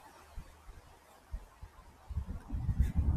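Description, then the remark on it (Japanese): Low traffic rumble from a nearby road on a windy day, picked up by a pin microphone, quiet at first with a few soft thumps, then swelling louder over the last second as a vehicle approaches. No one speaks. “道路が近づいてきたので、車の音が聞こえると思います。”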